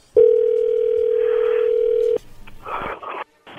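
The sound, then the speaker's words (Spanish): A steady, loud telephone dial tone holds for about two seconds, then cuts off, followed by brief faint clicks and noise bursts as a call is placed. “Le va a llamar el lobo, ¿ok?”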